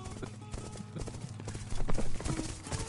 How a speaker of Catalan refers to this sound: aquell galop de cavalls no eren ni de l'exèrcit musulmà ni de l'exèrcit cristià. No eren cavalls, eren els llops.